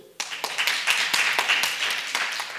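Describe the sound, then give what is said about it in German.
An audience in Erlangen breaks into a brief burst of clapping, clapping once in answer to who lives in a shared flat, many hands at once, dense and crackly, starting abruptly and holding steady for a couple of seconds without any voices over it. “Wer wohnt alles von euch in der WG? Einmal klatschen.”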